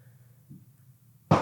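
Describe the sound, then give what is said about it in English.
A low, steady rumble hums along quietly, then a single sudden bang from Independence Day fireworks in Texas bursts out near the end, loud and broad, its noise lingering briefly as it fades. “I hope y'all can hear some of those fireworks firing off in the background.”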